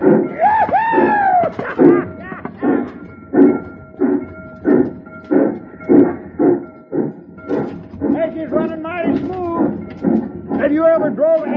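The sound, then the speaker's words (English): A steam locomotive chugs along in steady, rhythmic chuffs, loud, with a sustained high tone running underneath and voices calling out over the engine. “Hey, did you telegraph through to Laramie to make sure there ain't no other train in my way and coming at us?”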